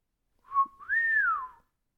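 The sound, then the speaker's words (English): A low human whistle, clear: a short steady note, then a longer tone that glides up and eases back down, with no talking around it. “Hermione lets out a low whistle on understanding.”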